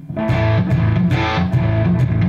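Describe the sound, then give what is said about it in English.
An electric guitar's body is struck several times in a steady rhythm, each hit shaking its tremolo springs into a loud, distorted, rattling crash over a sustained, wobbling tone. “which was fiddling around one day, and uh, basically I banged my guitar and and I hear this.”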